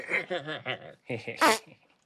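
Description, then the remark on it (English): A voice makes a short, loud, buzzy blown-lips fart imitation after a second of drawn-out, warbling vocalizing. “farts in his face.”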